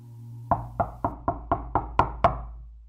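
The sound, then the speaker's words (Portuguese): A rapid series of eight firm knocks on the wooden door of a house at night, evenly spaced, with the last two striking a little harder, over a low steady hum. “Então, em uma noite acordei com alguém batendo na porta da casa.”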